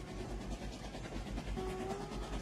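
Steady rumbling and rattling of a moving train carriage, with a continuous low roar and faint rhythmic clatter, plus a brief tonal squeal near the end. No one speaks.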